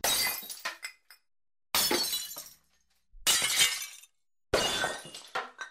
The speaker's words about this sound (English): Yeah, well, I mean, just put a bunch of explosions in, I guess, glass breaking, you know, children crying. Okay, explosions. glass breaking.